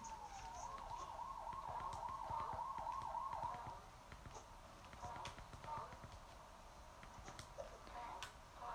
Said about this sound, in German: ich versuche gerade die ganze Zeit das Gleiche, falls ihr euch wundert, warum ich die ganze Zeit das Trampolin hört